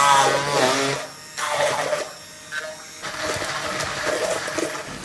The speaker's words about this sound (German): Okay, als erstes steht da, püriere die Erdbeeren mit dem Zucker. Ich nehme da jetzt so einen Pürierstab. Los geht's. Es wird jetzt etwas laut.